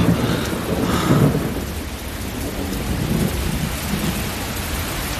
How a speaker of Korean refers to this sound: 어, 비가 오네.